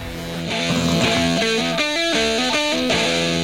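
A loud, heavily distorted electric guitar riff from a heavy metal rock song, with dense, gritty stepping notes played steadily throughout and no voices.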